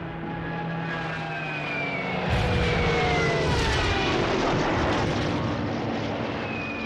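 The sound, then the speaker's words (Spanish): A Stuka dive bomber's engine roars with a falling, whining pitch during the 1940 German invasion of France, joined by a sudden loud burst of noise partway through that swells into a dense, rumbling din. “Pero no hay muralla lo bastante fuerte para resistir a los estucas.”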